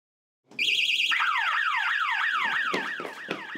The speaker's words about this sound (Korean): 비무장지대 GOP 철책에 이상한 움직임이 감지됐다는 경보가 울립니다.